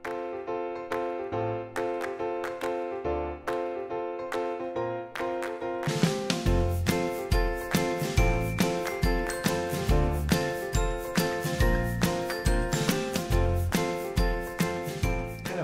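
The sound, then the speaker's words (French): A bright instrumental intro jingle with a tinkling, bell-like melody; around the midpoint a steady beat and fuller backing kick in, and the tune plays on loudly with no voices. “Restez à l'écoute après le générique.”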